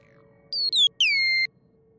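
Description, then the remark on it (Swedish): A small robot chirps out two quick electronic blips, bright warbling beeps that sweep downward in pitch, one right after the other, over a faint steady hum. “Så ingen av er eh, tycker att det är någonting annat än eh, outgrundligt gulligt att han blippar runt och piper som R2D2?”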